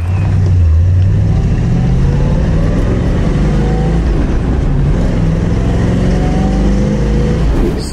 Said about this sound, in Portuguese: confere aí, principalmente o estilo e, claro, o ronco do V8.